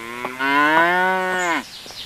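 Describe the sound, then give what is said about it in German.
A single long, loud cow moo with a rich harmonic tone, lasting over a second and trailing off with a slight downward bend, from the cows of the Erlenhof farm beside a field near a forest, followed by faint outdoor background noise. “Kühen vom Landwirtschaftsbetrieb vom Erlenhof vorbei.”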